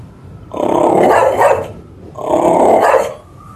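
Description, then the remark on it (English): A dog lying at a man's feet in a dim, candlelit living room growls twice in low, rumbling bursts of about a second each, separated by a brief pause, fairly loud with no voices. “At his feet, a dog growled ominously.”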